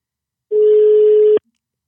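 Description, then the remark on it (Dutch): One steady, loud ringback tone on an outgoing phone call from a studio to a guest at the Rijnaard College in Zeeuws-Vlaanderen: a single mid-low hum lasting just under a second, then it stops, with no voices. “Ik weet niet of je nou meteen ook hoort overgaan.”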